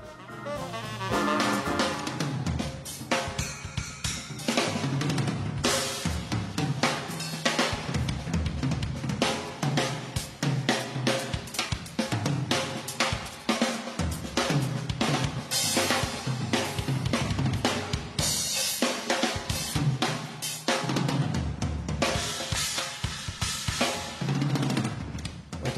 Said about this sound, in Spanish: solos de batería, más que nada los que vienen del jazz y sus fusiones que podían durar 25 minutos